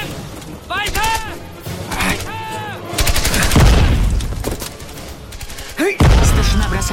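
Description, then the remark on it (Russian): Loud battlefield gunfire in a film war scene: sharp rifle shots and rapid bursts crack repeatedly, mixed with heavy booming thuds and shouting voices, as a sergeant shoots a German soldier who has run up close. “Точным выстрелом старшина сражает подбежавшего вплотную немца.”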